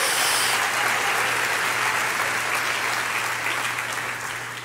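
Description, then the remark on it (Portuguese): An audience gives a round of applause to the Lord, clapping steadily in a dense wash of many hands at once, sustained at an even loudness before easing off slightly toward the end, with a low steady hum underneath. “Ah, dá uma salva de palmas ao Senhor.”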